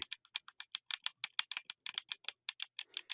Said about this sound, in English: Can you can you fucking quit clicking? You're you're I I can hear you moving it closer to your microphone to piss me off more.